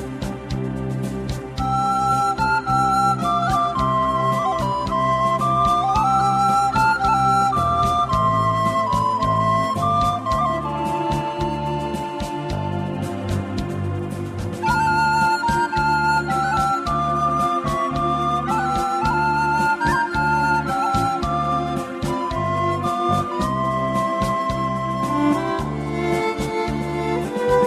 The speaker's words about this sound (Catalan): Aviam, tenim aquí una, una cançoneta que sona així.